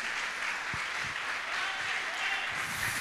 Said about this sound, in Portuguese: Vamos aplaudir a Jesus pela vida dele. Glória a Deus. Glória a Deus.